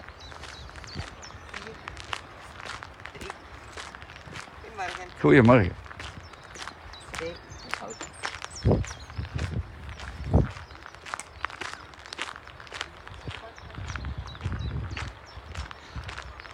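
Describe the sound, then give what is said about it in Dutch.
Two horses walk along with a steady, overlapping clip-clop of hooves throughout, while a couple of people exchange brief greetings in passing. “Twee paardjes.”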